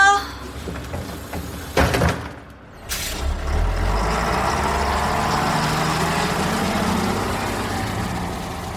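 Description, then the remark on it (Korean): A tour bus door hisses shut with a burst of air, then a heavy diesel engine revs and rumbles steadily and loudly as the guide hurriedly sets the bus off, with faint voices early on. “가이드가 서둘러 버스를 출발시켰다.”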